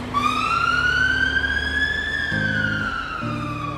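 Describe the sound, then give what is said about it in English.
A fire engine siren wails loudly while the engine responds to an emergency call, sweeping slowly up and then back down in pitch, over the steady low rumble of the vehicle and short deep horn-like tones. “When you see a fire engine speeding down a road, most of us get out of the way.”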